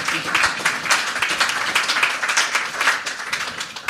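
crowd, audience applause

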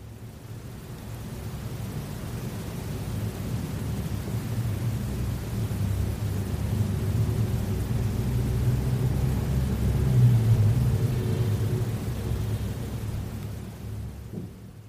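vehicle, truck driving past outside

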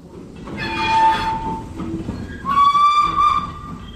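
vehicle, train running on rails

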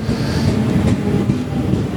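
vehicle, train arriving

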